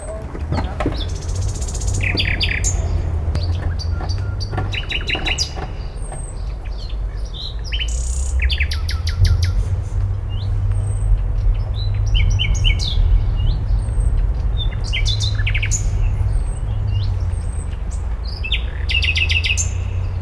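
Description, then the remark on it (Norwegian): A common nightingale sings in varied bursts of rich whistles, trills and sharp notes, clear, over a steady low rumble of city traffic in the middle of Berlin, Germany. “Og for første gang får jeg høre Nattergal, ikke bare én gang kanskje 40-50 ganger, midt i Berlin.”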